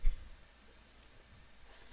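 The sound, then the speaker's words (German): Faint scratching of a pen moving across paper, soft, with a short rustle at the start and a slightly louder scrape near the end, as someone writes down an answer to a quiz question. No one speaks. “Stifte wieder weg und wir sind bei Julia”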